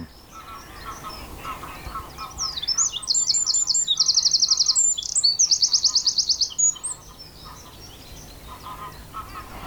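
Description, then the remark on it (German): A songbird sings loudly and close by, a bright burst of whistled phrases and rapid trills lasting several seconds over a faint outdoor background, with no talking. “Es ist ja immer so richtig Naturzwitschern heute.”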